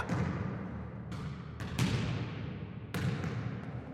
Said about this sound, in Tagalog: Maging ang tunog ng tumatalbog na bola.